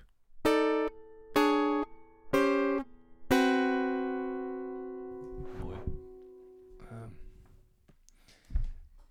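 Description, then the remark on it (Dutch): A short jingle of four bright, tonal chords, the first three clipped and evenly spaced, the last held and fading, followed by a few scattered voice-like sounds and a thump. “Er komt nog de deel 5 jingle.”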